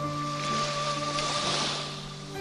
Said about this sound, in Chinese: 啊，涛声，涛声，又一阵阵响起，搅动大海深蓝、浅蓝的记忆。